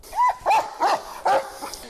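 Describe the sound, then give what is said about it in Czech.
A tracking dog of the Border and Foreign Police Directorate in Sobrance barks in a quick series of about four sharp, mid-pitched barks with a slightly yelping tone, followed by a softer one, with no talking. “Čím kratší čas, tým je to lepšie aj pre toho psíka, ktorý má stopovať.”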